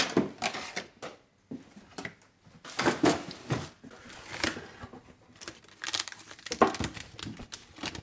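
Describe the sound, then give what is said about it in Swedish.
Crackling plastic wrap on a ready-made marzipan lid being cut with scissors and pulled open, with bursts of crinkling and tearing in irregular clusters and a few snips from the scissors between them. “Jag öppnar den här marsipanen.”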